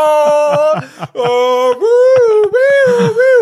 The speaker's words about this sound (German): das ist ein Feueralarm.